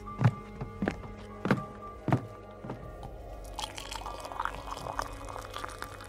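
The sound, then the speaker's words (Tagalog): About five heavy, evenly spaced footsteps thud. They give way to a steady splashing trickle of water being poured into a glass for a few seconds. No one speaks. “Teka, kukuha ako ng tubig. Uminom ka.”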